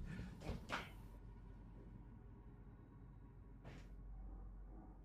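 A door is opened to let a dog in, with a couple of quick scraping, clattering bursts near the start, then another short knock a few seconds later, over a steady low rumble. Nobody speaks.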